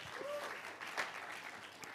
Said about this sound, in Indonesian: Tepuk tangan bagi nama Tuhan kita, Yesus Kristus.